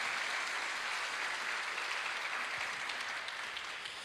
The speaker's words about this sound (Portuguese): Vamos aplaudir a Cristo, irmãos.